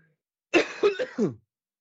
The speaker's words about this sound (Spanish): Vaya, me da la tos hoy